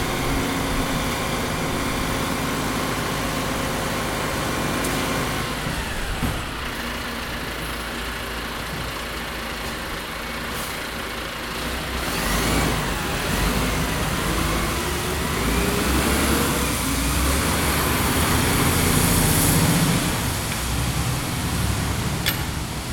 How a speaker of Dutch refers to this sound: Dit was dus de vuilniswagen op de Michelangelo-straat. Een heel ander geluid eh, dan de vliegtuigen die hierover komen. Het is ook lawaai, maar het eh, is nodig, want het houdt de straat schoon en het is hygiënisch.